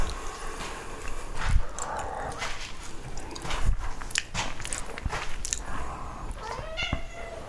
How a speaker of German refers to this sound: Oh. Das war der Kater. Das war mein Kater.